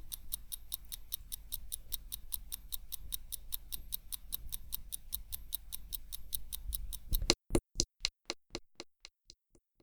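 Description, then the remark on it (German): A wind-up mechanical clock that runs without a battery and is started by turning a small silver wheel ticks in a fast, steady rhythm of crisp, bright clicks over a low rumble, which cuts out near the end, leaving a few fading ticks that slow and stop. “Man dreht nur an einem kleinen silbernen Rädchen und schon tickt sie los.”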